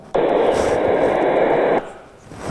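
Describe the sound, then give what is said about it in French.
A steady, dense wash of murmuring noise, a cocktail-party crowd babble synthesized with a Gaussian model. It is loud and continuous for under two seconds, then cuts off abruptly into quiet. “Ça, c'est un cocktail, donc le cocktail gaussien.”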